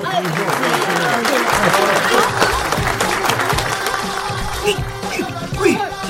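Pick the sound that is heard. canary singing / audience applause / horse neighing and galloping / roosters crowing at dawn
audience applause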